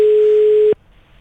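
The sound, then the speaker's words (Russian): A single steady electronic ringback tone, the sound of a phone line ringing, sounds loud and clear for under a second, then cuts off into near silence. No one answers. “Итак, сейчас, надеюсь, Рамиль сможет взять трубку и с нами пообщаться.”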